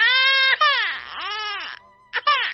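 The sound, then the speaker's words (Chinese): A baby cries loudly in rising and falling wails, several high-pitched, strained bursts with a brief breath pause before the crying resumes. No one speaks. “他又给宝宝一片涂了果酱的吐司，可宝宝还是哭。”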